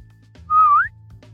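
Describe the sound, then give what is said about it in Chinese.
A single flirtatious whistle at a man wearing a bath towel on a ship's deck, a loud, clear tone that holds steady and then slides upward at the end, lasting under half a second over a low steady hum. “穆恩看到这一幕，吹了个口哨，决定耍个流氓。”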